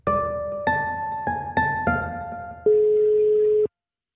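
A string of loud electronic telephone tones on an outgoing call to a local journalist, stepping between pitches in quick beeps before settling into one longer held tone, with no one speaking.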